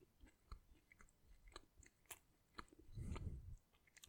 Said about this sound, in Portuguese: Estou a mastigar, calma.